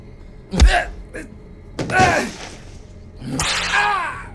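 A whip lashes a person three times, each stroke a sharp, close crack spaced over a second apart. The later strikes come with pained, strained vocal cries.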